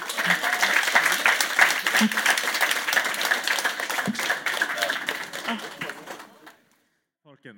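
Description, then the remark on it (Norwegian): An audience applauds the panel participants for about six seconds, a dense, steady wash of many hands clapping that gradually thins and fades out, followed by a brief murmur of voices. “Og så gir vi en applaus til paneldeltakerne med en gang.”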